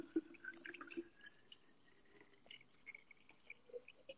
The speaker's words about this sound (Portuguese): Peraí. Deixa eu pôr uma água aqui.